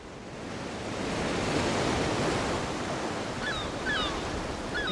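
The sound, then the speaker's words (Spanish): Steady ocean surf washes along a shore, a broad continuous hiss that swells slightly and holds, with faint high bird chirps scattered near the end. No one speaks. “Por ejemplo, ¿les gustaría que estuviéramos frente al mar?”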